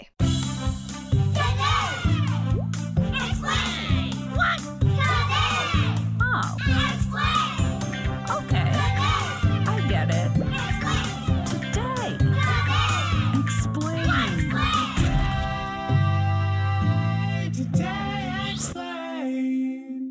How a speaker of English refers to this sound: the super childish sounding theme song they have to their podcast